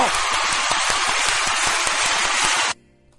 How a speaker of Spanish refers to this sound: Un aplauso a Brian Singer, por favor, chinga. A ver, un aplauso por el amor de Deus. A ver, ¿dónde están los efectos de aplausos? A ver. A ver, un aplauso por un demonio.